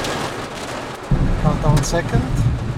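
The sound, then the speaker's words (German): Steady rain hiss, then a deep, loud thunder rumble breaks in about a second in, right after a lightning strike, and rolls on while a voice talks over it; heard from inside a car during a storm. “Also das war gerade Blitzeinschlag und direkt der Donner hinterher.”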